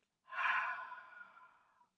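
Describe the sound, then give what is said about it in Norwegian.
A single deep breath pushed out through the mouth after breathing in through the nose, part of a calming breathing exercise, a soft airy whoosh that starts strong and slowly fades over about a second and a half, alone with no talking. “Da begynner vi med å puste godt inn med nesa og ut gjennom munnen.”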